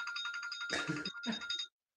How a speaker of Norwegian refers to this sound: Nå ringte telefonen. Skal jeg bare slå av den?